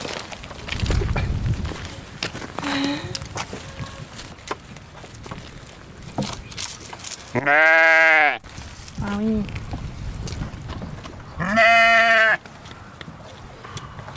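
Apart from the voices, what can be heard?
dairy ewes bleating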